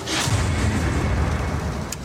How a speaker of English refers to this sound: Can't we sleep in with you tonight? It's only a storm.